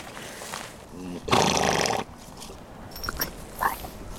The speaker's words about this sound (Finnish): Tykkäätkö hevosista? Täällä on.